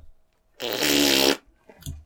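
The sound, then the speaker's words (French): A single loud fart, a buzzy rasp lasting under a second, followed by quiet and a faint brief noise afterward. “Les pets.”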